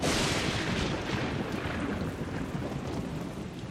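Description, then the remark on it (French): Steady heavy rain pours down with a deep, rolling rumble of thunder underneath, loud and continuous throughout, gradually easing slightly toward the end. No voices. “Pour commencer, Parlons de la pluie.”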